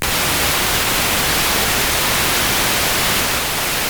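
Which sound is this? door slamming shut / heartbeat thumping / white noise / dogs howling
white noise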